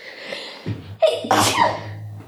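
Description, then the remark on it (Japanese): A loud sneeze: a quick sharp inhale builds into an explosive burst of breathy noise, then trails off briefly. No talking, just the single sneeze. “いや、あ、もう一回そうだな、くしゃみ。”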